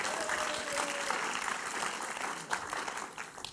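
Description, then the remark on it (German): Steady crowd applause fills the whole stretch, a dense wash of many hands clapping at even loudness, with a few sharper individual claps standing out near the end. “Und der erste Jesus, ja, ich darf einen Applaus geben.”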